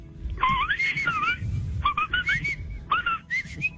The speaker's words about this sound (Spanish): No, qué silbidos, qué silbidos. No, gracias.